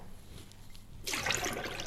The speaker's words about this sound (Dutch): Ik gooi zoveel limonade weg, waar ik gek van. Dat zeg ik ook tegen mijn kinderen. Niet zoveel eh, inschenken. Je mag wel bij inschenken als je meer wil, maar niet te veel. Want vaak gooi ik dus dit weg.